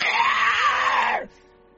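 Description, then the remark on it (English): A voice imitates a scarecrow's shrill, raspy screech, one loud sustained cry held for just over a second, before cutting off abruptly into near silence. “It makes like makes that same screeching sound.”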